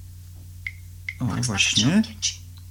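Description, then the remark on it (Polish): Two short, high-pitched blips from swiping between the home screens on Android 4.0, spaced about half a second apart, followed by a person speaking briefly over a low background hum. “to jest przesuwanie ekranów głównych.”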